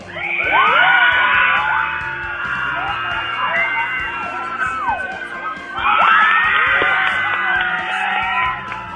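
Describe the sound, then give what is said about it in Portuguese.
A large crowd of girls in a packed cinema screams and shrieks together during a Twilight saga screening as Jacob takes off his shirt on screen. The screaming is loud and sustained, with a brief dip in the middle before a second burst of high-pitched screaming erupts. “a maioria das meninas gritou, tipo, o Jacob tirou a camiseta, todo mundo foi a delírio, né?”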